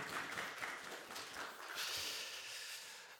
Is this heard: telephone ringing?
no